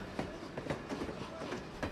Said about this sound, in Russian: Поезд прибыл на станцию «Подкаст». Выход на правую сторону к поездам третьей линии.